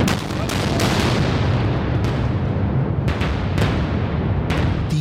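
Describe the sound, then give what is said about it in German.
Dynamite charges detonate one after another in the Brenner Base Tunnel, deep in the mountain beneath the Igls district of Innsbruck, about 500 meters below the surface and roughly 500 meters from the end of the borehole: a rapid string of sharp blasts over a dense, continuous reverberant rumble, loud throughout. “Dynamitstangen explodieren nacheinander, damit es die Menschen im Innsbrucker Ortsteil Igels nicht aus den Stühlen hebt.”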